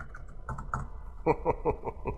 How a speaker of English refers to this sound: Guy spends 10 seconds randomly hitting letters on the keyboard. I'm in.